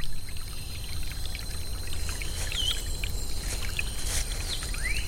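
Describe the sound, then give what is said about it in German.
A barely arm-wide stream in deep, hilly jungle trickles and gurgles steadily as it winds under leaves between dense undergrowth, with a constant watery wash, while faint bird calls and insect-like whistles chirp now and then in the background. “Das kaum armbreite Rinnsal schlängelt sich unter dem Laub zwischen undurchdringlichem Gestrüpp hindurch.”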